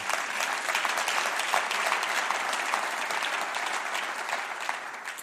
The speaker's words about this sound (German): Es wird so kommen, weil Jesus ist der König und das ist unser Glaube und dafür lasst uns mal Jesus einen Applaus geben. Halleluja.